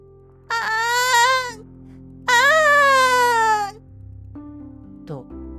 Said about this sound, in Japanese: 鳴き声がします。便所を出てみると外で泣いていたのはカッパでした。